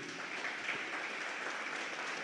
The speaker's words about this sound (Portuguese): Vamos aplaudir o pastor